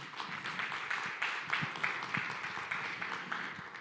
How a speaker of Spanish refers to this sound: Y vamos a interceder, vamos a poner este evento en las manos del Señor y vamos a empezar con una ofrenda de palmas a nuestro buen Dios.